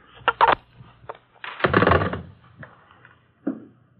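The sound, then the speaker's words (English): A telephone receiver is hung up: a few sharp plastic clicks, a brief rattling clatter as the handset settles into its cradle, then one soft final knock, with no talking. “Fifteen minutes after I hung up, we went downstairs and got into a green Chrysler sedan.”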